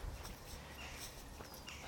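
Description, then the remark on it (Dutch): Soft, intermittent clinks of a dog's leash rattling during an evening walk around a small bird island in the neighbourhood, faint, over quiet outdoor ambience with shuffling steps and a bird chirp. “Dus af en toe hoor je dat teer van zijn riempie.”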